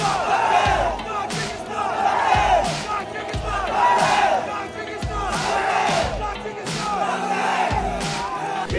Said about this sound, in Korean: 경기가 끝난 후 라커룸에서도 승리와 기쁨의 환호가 이어졌습니다. 선수들은 타지키스탄을 외치며 승리에 환호했는데요.